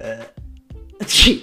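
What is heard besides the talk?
sneeze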